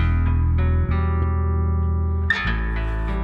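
A recorded hip-hop track begins playing, loud and close, with sustained droning tones and a few sharp accents punctuating them, and no voices over the music.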